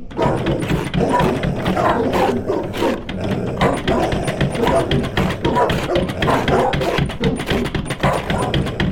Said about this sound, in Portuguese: Naquele dia, os cães estavam muito mais agitados que o normal rosnavam, fungavam forte e arranhavam a porta.